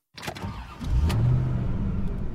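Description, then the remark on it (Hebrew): A car engine turns over after a few sharp clicks and settles into a steady, low idling rumble, fairly loud, with no one speaking. “מרוב תיקים נסענו בשתי מכוניות נפרדות.”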